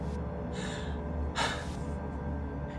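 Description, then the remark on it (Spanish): A voice imitates heavy, panting breaths: a softer exhale followed by a louder, harsher rush of air, close to the mic, with no talking; it mimics the breathing of someone sitting down in the seat beside a man in a car. “Él decía que siempre que terminaba su última función, él salía, arreglaba sus cosas, él se llegaba y se subía al carro y que escuchaba que alguien se sentaba en el asiento de al lado y se escuchaba una respiración de...”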